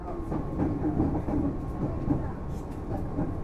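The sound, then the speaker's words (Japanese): A commuter train bound for Shin-Kiba, next stop Ōimachi, rumbles steadily along the rails, a constant low roar with faint rhythmic clacks of wheels passing over track joints, and no one speaking. “今日折り返しにご乗車ありがとうございます。この電車は新木場行きです。”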